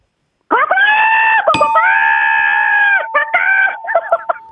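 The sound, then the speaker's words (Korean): A person, a caller to a broadcast prize contest, loudly imitates a rooster crowing angrily in the morning to wake its owner: a strained, screechy call, a brief catch, a long drawn-out crow, then a few choppy sputtering bursts to finish. “자, 닭이 아침에 화가 나서 우, 우는 소리입니다. 닭 울음 소리 들어보겠습니다.”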